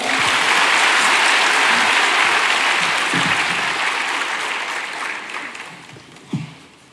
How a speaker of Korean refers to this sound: 예, 우리 박수로 환영하겠습니다.